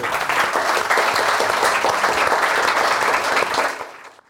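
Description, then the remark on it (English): An audience at a London Review Bookshop event claps steadily in sustained, dense applause thanking LRB and Verso Books, holding at an even level for about four seconds before quickly tapering off to quiet. “Uh, can we thank uh, LRB for helping us and Verso Books for publishing this very significant book.”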